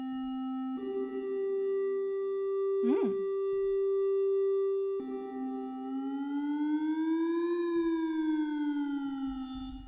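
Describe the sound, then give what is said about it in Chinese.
A synthesizer triangle-wave tone hums steadily at a low-mid pitch, slightly brighter than a pure sine, with a brief swooping blip early on and later a slow upward-then-downward pitch bend. “然后听一下三角形，其实从形状你就大约猜得到，哎，会不会有比较尖的声音出现？”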